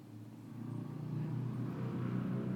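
A continuous low engine rumble of road traffic outside, swelling slightly as a vehicle passes, steady and moderately loud, with no voices.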